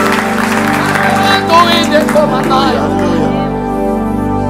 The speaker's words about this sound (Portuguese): Quantos dá glória a Jesus? Quantos dá um aplauso ao Senhor?